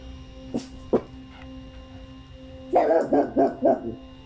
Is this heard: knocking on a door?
no